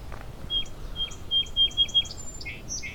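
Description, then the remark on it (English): A bobolink sings while flying, a bubbling, tinkling run of quick high notes and short whistles, moderately loud against a soft background hiss, with no voices present. “This bobolink is flying in the air and singing at the same time.”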